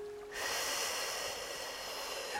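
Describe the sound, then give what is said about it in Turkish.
A long, steady breath out to release bodily tension and relax, a fairly loud airy rush that begins after a brief quiet moment and carries on evenly to the end, with no talking. “kocaman uzun bir nefesle atıyorum ve rahatlama geliyor.”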